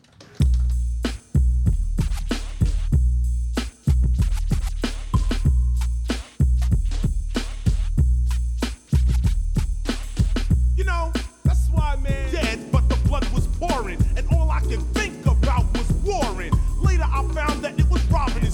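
A loud hip hop track plays throughout, with a heavy, steady bass-driven beat; layered vocals enter over the groove about two-thirds of the way through.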